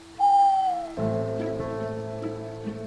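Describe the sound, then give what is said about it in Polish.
A single drawn-out owl hoot, clear and fairly loud, sliding slightly downward in pitch, followed by a quieter, steady ambient background with soft sustained tones. “Również sowa ze swoim wywoływała u niego paniczny strach.”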